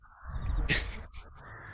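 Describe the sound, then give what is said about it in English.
A raven gives a harsh, rasping caw, loud, with a shorter croak after it over a low rumbling background. No one speaks. “Raven.”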